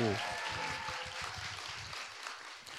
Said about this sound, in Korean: 박수 주세요. 와우!